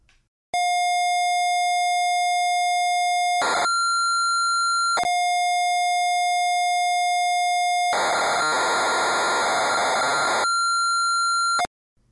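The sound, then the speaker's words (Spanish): Retro computer cassette loading tones: a loud, steady electronic pitch that jumps between two notes, broken by short clicks, then a harsh buzzing data burst before the tone returns and cuts off. “Venga, comencemos. Cargamos Retromanía 30.”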